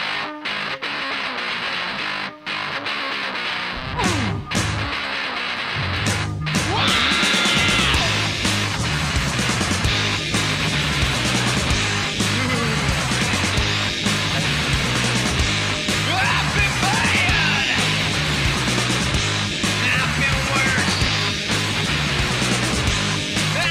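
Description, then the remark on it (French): A loud, raw punk rock song from a 1988 7-inch 45 rpm single, with heavily distorted, fuzzy guitars and a driving beat, starting with a scrappy intro before the full band crashes in and keeps pounding steadily. “publication du 7 pouces, 45 tours, on disait un, euh, 7 euh, pouces, la, chanson …”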